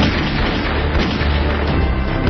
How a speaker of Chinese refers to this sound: 男子正悠闲自得地欣赏风景，突然，一道黑影从树丛里闪出，对着滑竿上的男人砰砰砰就是几枪。